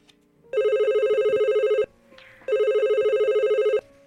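A telephone rings twice, each long electronic trill lasting over a second with a short pause between, clear and close with no one talking.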